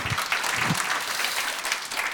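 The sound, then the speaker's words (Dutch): An audience applauds steadily for a guest who will perform, a dense wash of many hands clapping at once, sustained and fairly loud throughout with no voices standing out. “Even applaus alvast voor hem.”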